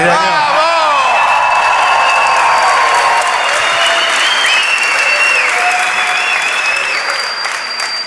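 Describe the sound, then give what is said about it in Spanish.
A loud burst of applause with shouts and whoops from an audience in Santa Fe, shouting on cue whenever Santa Fe is said, dense clapping holding steady for several seconds before easing slightly at the end. “claro, se trata de eh, irrumpir con un grito estentóreo cada vez que digamos Santa Fe.”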